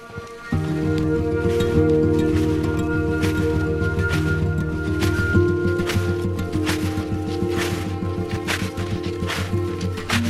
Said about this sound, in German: Dieses Geräusch. Dieses Geräusch, wenn der Schnee leise unter den Schuhen knirscht, wenn man wie auf Watte gehend nur Zentimeter sanft einsackt und wenn sich dann auch noch die Sonne langsam über die Allgäuer Alpen schiebt